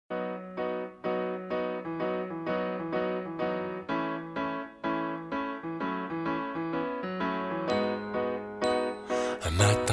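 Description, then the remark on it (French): A French pop song intro plays alone, with a steady, rhythmic run of bright, chiming melodic notes over a low pulse, swelling into a fuller, busier texture near the end. “Et pour ça, ça tombe bien, c'est le nom de cette chanson”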